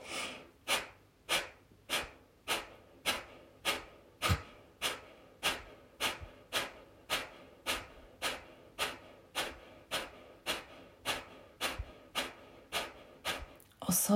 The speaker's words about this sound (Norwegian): Og når du puster ut ha munnen igjen. Trekk magen raskt inn, sånn at du skyver lufta ut gjennom nesa i ganske kraftige utpust. Hvis man ikke har pussa nesa her, så flyr snørret.